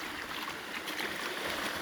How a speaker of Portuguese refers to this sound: Esse aqui é o Duque andando na água, me molhando todo. E o som da queda d'água também, né? vou chegar mais perto para vocês ouvirem. Saibam que esse som por si é um som curador.